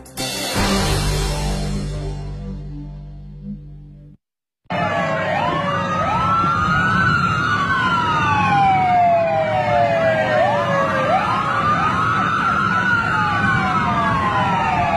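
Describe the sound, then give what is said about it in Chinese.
Several police sirens from a convoy of police cars slowly driving into Baiyuan Village, Tianjia'an District, Huainan, Anhui Province, China, wail over one another, their pitches sweeping up and down in repeated overlapping cycles, loud and steady, after a brief burst of other noise and a short silence. “七月十八号上午的十一点多，一队警车缓缓驶入了安徽省淮南市田家庵区的百源村，打破了小村商业街的热闹的氛围。”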